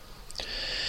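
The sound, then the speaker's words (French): A cat vocalizes: a sudden high-pitched cry that settles into a steady, airy, hiss-like tone, held for over half a second without any talking. “Ça, c'est le chat.”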